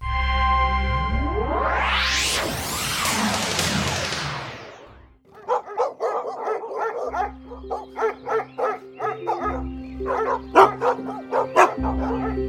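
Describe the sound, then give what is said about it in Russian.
A pack of borzoi hounds barks and yelps in a rapid, overlapping chorus, loud, after an opening swell of sweeping, rising tones. The dogs surround Kostroma prince Vasily Kvashnya as he hunts on horseback in a forest. “А что это за лай? Это охотится костромской князь Василий Квашня Вот и он, так и горцует на лошади, а вокруг собаки”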